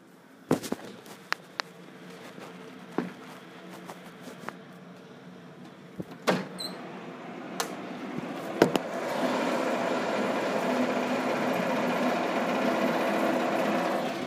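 An excavator with a crane at the front drives along the street outside: scattered sharp metallic clanks and bangs, then a steady, loud mechanical rattle and engine roar building and holding for the last several seconds.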